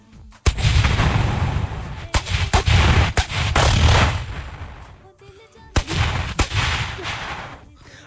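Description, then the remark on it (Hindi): A voice imitates two or three gunshots by mouth into a microphone, not real gunfire: a burst of loud, crackling blasts with sharp sudden onsets, a brief pause, then another rough, noisy volley. “अच्छा फिर तो खैर मैंने जो दो तीन फायर मारे अपने मुंह से ऐसे हम्म।”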